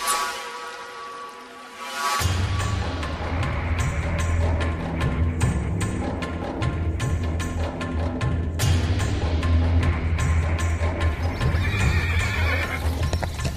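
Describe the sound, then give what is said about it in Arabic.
A horse whinnies and snorts over a steady clip-clop of hooves that starts after a brief quiet opening and keeps a loud, even trotting rhythm throughout, with no voices. “يظهر فيك يا صاحبي راكب على حصان”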